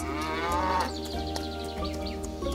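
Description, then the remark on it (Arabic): A cow in a green meadow gives a long, drawn-out moo, fairly loud, its low droning call swelling briefly early on before holding steady until the end. “لاحظت أمرا يبدو أن لا أحد غيري تنبه له لقد اختفى صوت البقرة يا إلهي أين ذهبت البقرة؟”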